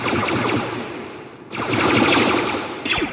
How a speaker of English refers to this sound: The sound ice makes is not only really neat, Mabee says. It's the same noise that you hear from the stormtroopers in Star Wars.